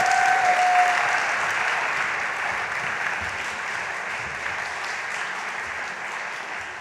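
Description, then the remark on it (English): Audience applause for volunteers, a dense, steady wash of many hands clapping that starts full and gradually fades over several seconds, with no talking on top. “At this point, we're going to give our volunteers a big clap and send them on their way.”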